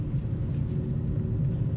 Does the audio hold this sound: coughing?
no